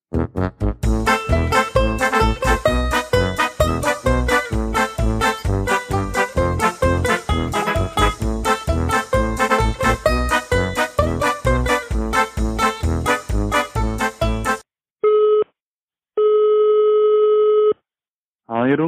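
A busy, rhythmic stretch of music gives way to a telephone ringing tone as a weekly call is placed to someone in the Czech Republic: steady, mid-pitched electronic tones with short silent gaps between them as the call rings out.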